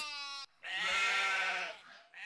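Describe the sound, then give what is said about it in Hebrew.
Sheep bleating in two quick calls as they arrive to graze on grass: a short clear bleat, then a long wavering, quavering one that fades off, with no talking. “הנה כבשים.”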